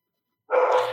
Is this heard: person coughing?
no